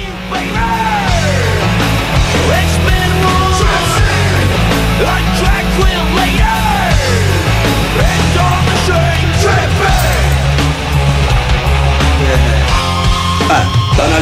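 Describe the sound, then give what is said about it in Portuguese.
A loud, dense heavy metal guitar riff with fast, chugging picking on low notes, driving steadily throughout, with harsh yelled vocals sliding over the top. “Mas é, esse é o som que tá por trás. Aumenta um pouquinho”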